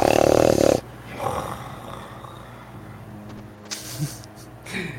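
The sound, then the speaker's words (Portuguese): A person imitates a sleeping man snoring in response to a throat-clearing: one loud, raspy burst at the start, followed by softer, breathy snorts and rumbles trailing off over the next few seconds. “Ele ronca em resposta.”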